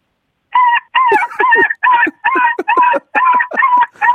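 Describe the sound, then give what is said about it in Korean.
A sixth-grade child imitates a puppy crying sadly, a fairly loud run of about nine short, high whimpering yelps in a quick, steady rhythm with brief gaps between them. “자, 우리 서, 서럽게 우는 강아지 다시 한 번만 들어볼게요.”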